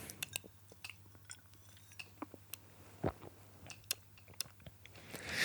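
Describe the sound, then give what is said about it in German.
Someone takes a sip of water: soft wet mouth clicks and smacks scattered over a few seconds, with one fuller gulp midway, all quiet over a faint low hum. “Ich trinke nochmal einen Schluck Wasser hin.”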